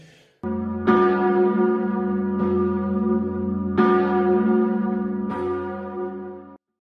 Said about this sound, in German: Läuten, das ist, wenn die Glocke sich be bewegt. Dong, dong, dong, dong, dong.